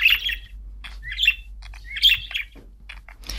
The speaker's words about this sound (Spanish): Canarios. Agapornis. Y periquitos.